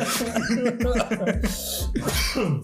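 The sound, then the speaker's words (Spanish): Loud laughter in quick voiced bursts that breaks into a few harsh coughs partway through, with the laughing and coughing tangled together to the end. “Ay, ya la risa que se convierte en tos.”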